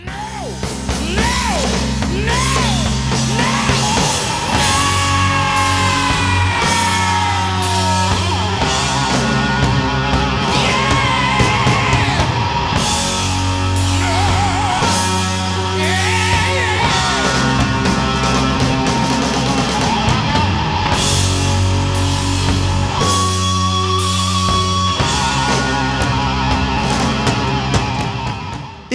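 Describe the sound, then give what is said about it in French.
A loud, dense heavy metal passage built on a tritone, with a grinding distorted guitar riff over thick low notes and pounding drums, playing continuously at full volume without any vocals. “Petit extrait de ce titre qui vous fait entendre un des tritons les plus connus dans l'univers du métal.”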